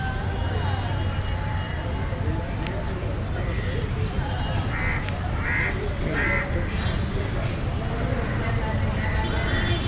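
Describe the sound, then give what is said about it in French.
Birds call in a city park garden, recorded from inside the park, with a few harsh crow-like caws clustered midway, over a constant low rumble of city traffic that fills the whole scene. “on entend davantage le son euh, de l'environnement euh, des oiseaux, du jardin, et un peu les sons du trafic”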